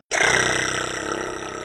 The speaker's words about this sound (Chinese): 这是没有加声音的弹舌。